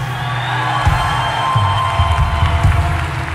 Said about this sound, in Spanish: Alguien da un grito de júbilo, pero bien, bien fuerte.